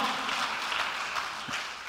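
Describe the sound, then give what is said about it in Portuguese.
An audience applauding, a dense and steady wash of many hands clapping at once that holds evenly throughout with no pauses and no voices rising above it. “Você pode dar um aplauso aí, pelo amor de Deus?”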